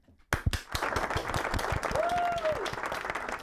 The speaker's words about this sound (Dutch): Dit is echt speciaal voor jou het applaus.